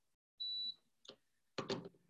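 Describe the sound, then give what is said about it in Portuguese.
A single steady high-pitched electronic beep from an air conditioner as it is turned down, followed by two short clicking, rustling thumps, with no talking. “vou baixar o ar-condicionado, que eu estou com frio.”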